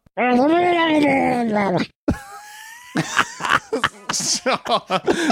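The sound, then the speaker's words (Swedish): A loud, warbling, gurgling cry from a Murloc, a fish-like creature in the video game Warcraft 3, held for about two seconds, then a brief steady tone and a flurry of short, choppy game sound bursts. “men de här Murloxen i Warcraft 3 Eh, de, jag ska se, vi kan klippa in det ljudet här så får vi se ja.”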